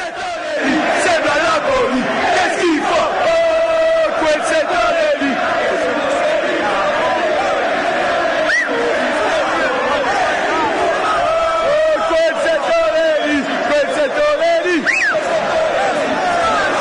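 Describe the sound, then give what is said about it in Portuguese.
A large stadium crowd of football fans chants an anti-Naples song in unison, a dense roar of many voices holding a steady, sung refrain with rising shouts, loud and continuous throughout. “Tem músicas então, inclusive.”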